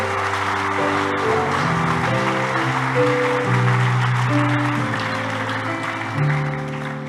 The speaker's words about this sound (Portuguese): Aplauda o Espírito Santo porque ele está em você.